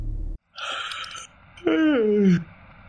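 A single yawn: a long breathy inhale, then a voiced, drawn-out sigh that slides downward in pitch and fades, with no talking.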